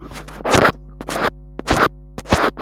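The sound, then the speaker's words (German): A paint roller rasps across a wall in several rhythmic strokes, each a short scratchy sweep with brief pauses between, with no talking. “Es ist einfach ein sehr schönes Geräusch, wenn man mit dieser Farbrolle über die Wand geht.”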